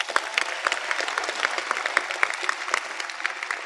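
A crowd applauds steadily, with many hands clapping at once in a dense, continuous patter that holds at an even, fairly loud level throughout.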